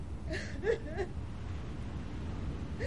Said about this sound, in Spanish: Se detiene y mira hacia la habitación donde escucha el llanto de Ruth.